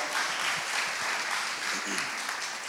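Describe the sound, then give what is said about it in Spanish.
A church audience gives God a loud round of applause, steady and dense, many hands clapping at an even loudness for the full few seconds, with no voices standing out. “Amén, dale un fuerte aplauso a Dios Iglesia por ese punto, esas palabras.”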